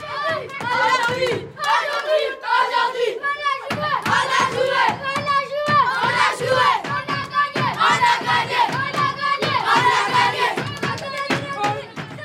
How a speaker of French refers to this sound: Forcément, après le match, c'est la fête dans le vestiaire, pour les joueurs comme pour les quelques dizaines de supporters venus les soutenir.